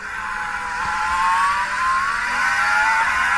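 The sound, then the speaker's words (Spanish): A high, whining race car engine drones steadily, its pitch sliding gradually lower as it slows into turn 3, a left-hand corner after a straight passing behind the government house, with a sustained, fairly loud tone and no voices present. “La curva número 2, otra recta que pasa por atrás de la casa de gobierno, ahí se activa el DRS alternativo hasta la curva número 3, giro otra vez a la izquierda, escuchen cómo baja la velocidad.”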